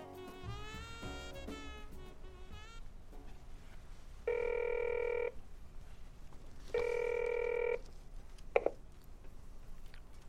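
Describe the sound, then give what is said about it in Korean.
A phone rings twice, each burst a steady electronic tone lasting about a second, heard clearly after a short run of button-press tones, followed by a faint click, as a son calls his father to check on him. “그 말이 듣고 싶어 가끔은 전화기를 들 때가 있었다.”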